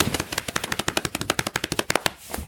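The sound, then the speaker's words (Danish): A rapid, steady run of soft papery flaps, about twenty beats in two seconds, fairly loud, then stopping abruptly. It is a blue tit's wings beating hard as it flies in. “Og så kunne de høre den komme, den svinger baske.”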